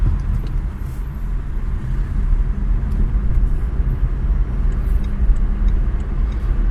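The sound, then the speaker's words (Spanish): Steady, loud road rumble and traffic noise pour in through an open car window, a continuous low roar with faint swells of other vehicles going by; no one speaks. “así con algunos coches, veréis los sonidos de los otros coches.”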